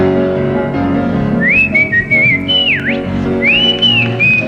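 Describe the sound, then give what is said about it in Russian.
A woman whistles a song melody in clear, sustained notes with smooth upward and downward slides, carried over a full, busy background of accompanying sound from accompanying musicians, in the Tchaikovsky Concert Hall. “Она сама свистит, это к, к радости всего зала.”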